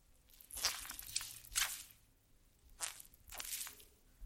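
A natural bath sponge being squeezed about four times at an uneven pace, each squish a soft, wet, crackling burst with fizzy high-pitched detail, fairly quiet, with no voices.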